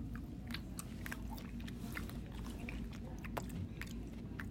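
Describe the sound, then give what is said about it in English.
Wet, juicy chewing of a tangerine, with soft squishing and small crunchy bites repeating irregularly over a steady low rumble, no talking. “More tangerine.”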